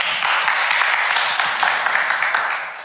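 An audience applauds steadily, many hands clapping in a dense, continuous patter that stays loud throughout and fades slightly at the end.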